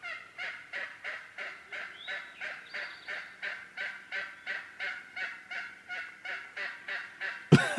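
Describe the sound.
A hunter's nonstop run of nasal, kazoo-like bird calls, about twenty quick yelps in a steady rhythm, even in loudness, cut off by a sharp knock at the end.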